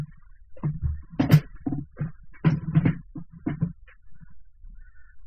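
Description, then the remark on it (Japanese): An old wooden chair with a worn-flat seat cushion creaks and groans in a series of short, irregular squeaks over several seconds, fairly loud, as someone re-seats themselves in it. “これもうギシギシうるさいんですよね、この放送は。”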